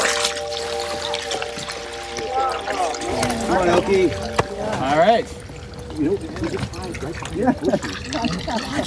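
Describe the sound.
Water pours and splashes steadily into a trough, a continuous gushing sound running the whole time while people talk over it.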